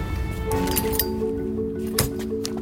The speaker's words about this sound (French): Là, je prends une bouteille d'eau.